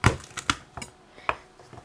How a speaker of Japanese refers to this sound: そうしましたらにんにくですね潰して使うので、はい、包丁の腹でガスッと潰してもらって